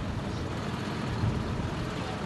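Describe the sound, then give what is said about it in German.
A steady, low engine rumble of tractors, cars and trucks rolling onto a square during a protest, continuous, with no voices. “Immer neue Traktoren, aber auch Pkw und Lkw rollen auf den Platz.”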